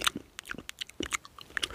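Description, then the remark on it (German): A voice imitates a woman's loud, wet smacking chewing, with a rapid, irregular run of lip smacks and mouth clicks over about two seconds and no talking. “Und auch so schmatzend.”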